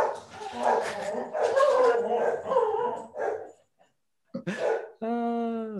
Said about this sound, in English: Dogs.